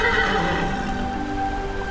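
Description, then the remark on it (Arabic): A horse tied to a tree near the shore neighs loudly while in pain, a sustained whinny with a strained, wavering pitch filling the whole moment, with a faint patter like rain in the background. “لاحظ ان الحصان يتالم فحاول فكه عن الشجره”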